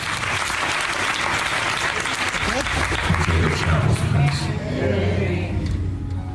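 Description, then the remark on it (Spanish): Sustained applause from an audience, a steady dense clatter of many hands clapping, with some low murmuring and a voice mixed in beneath it. “Le aplaudieron.”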